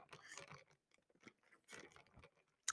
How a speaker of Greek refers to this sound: Θα πιω μια γουλιά καφέ.